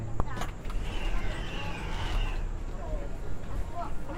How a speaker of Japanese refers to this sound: すげえ古臭い自動ドアの音だね